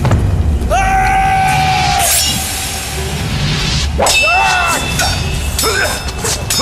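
Loud metallic clangs of swords striking each other, ringing out in several sharp bursts with a shimmering resonance, over a dense, rumbling battle din, as generals Hoàng Chân and Chiêu Văn fight the armoured Quách Quỳ in a battle between Lý and Song forces.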